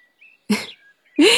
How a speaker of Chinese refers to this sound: 小麻雀不服气，扇着小翅膀，啾啾啾的叫着，但是还是被镇压了。